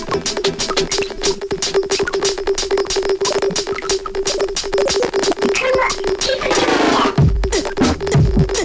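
Turntable scratching by a DJ with a bubbly, gurgling effect like bubbles being blown: rapid, dense clicks and pops over a steady hum, with a sweeping warble near the end. No one speaks.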